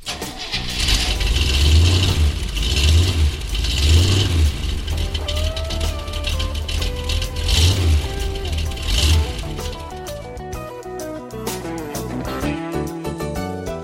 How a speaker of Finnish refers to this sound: Kone käyntiin.